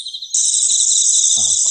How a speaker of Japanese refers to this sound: 秋が深まってまたいろんな虫が鳴くようになりましたあ今スズムシの声も聞こえてきてますねキリギリスこれキリギリスの声なんかも聞こえてきてます